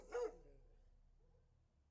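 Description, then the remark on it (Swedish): A police search dog, searching the area around where a bicycle was found, gives one sharp bark right at the start, then only a low, quiet background hum remains for the rest of the moment. “En hundpatrull får i uppgift att söka runt i närområdet från där cykeln hittades.”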